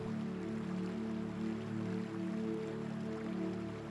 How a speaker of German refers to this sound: Du kannst das Rauschen des Wassers wahrnehmen höre einmal genau hin und lausche dem Geräusch des fließenden Wassers.